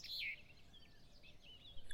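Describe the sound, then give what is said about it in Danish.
Birds chirp softly in a forest, a bright cluster of high tweets at the start followed by scattered fainter calls over a quiet, steady background hush, with a few more chirps near the end. “Han var gået gennem skoven, hvor han sad på en træstup og spiste sin madpakke, mens fuglene pippede over ham, og insekterne kriblede og krablede i skovbunden under ham.”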